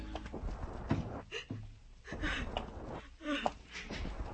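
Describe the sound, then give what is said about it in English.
Quick, evenly spaced footsteps hurry along a hard hospital corridor floor, moderately loud, with faint voice-like sounds murmuring underneath. “And the only sound in the corridor is your footsteps, a, a sound that hurries toward pain.”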